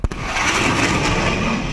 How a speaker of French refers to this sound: Bah ah, euh, le, le mur du son. Ouais. C'est un avion de chasse qui brise, enfin qui passe le mur du son.